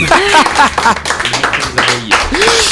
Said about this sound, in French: bon, bah très bien, on peut applaudir notre invité.